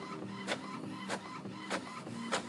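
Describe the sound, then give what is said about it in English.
A printer runs up close, its steady mechanical whir broken by sharp, evenly spaced clicks or thumps about every half second as it feeds and prints a page of a schedule. “Can you hear it print? Let's move it close. See, it printing.”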